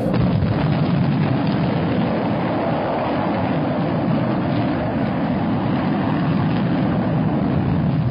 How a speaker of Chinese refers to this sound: 十秒倒计时。一九六一年四月十二日上午九点零七分，搭载加加林的人类第一艘载人飞船“东方一号”由火箭推送，正式点火升空。